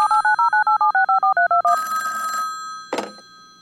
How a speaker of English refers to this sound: Ik eh, denk dat de telefoon gaat. Gaat de telefoon? Ja, er gaat de telefoon.